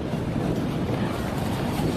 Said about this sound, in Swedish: Och ändå så kommer den här enorma vågen.